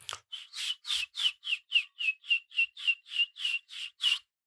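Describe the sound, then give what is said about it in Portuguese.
A person whistles an imitation of bird chirping, a steady run of about thirteen short, breathy chirps in even rhythm, clear with no talking. “A dada altura, eu tinha uma falha nos dentes em que conseguia fazer assobiar eh, como os pássaros, fazer qualquer coisa do género.”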